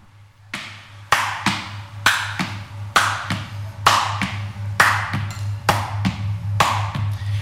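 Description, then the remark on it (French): A steady swing (shuffle) rhythm as used in jazz, tapped out with sharp taps or claps in long-short pairs, the off-beat delayed, each hit bright with a quick ringing decay, over a low constant hum, with no voices. “Et ça, c'est ce qu'on retrouve beaucoup en jazz, puisque c'est l'interprétation swing, qu'on appelle shuffle en anglais, et euh, on le retrouve dans le shabada.”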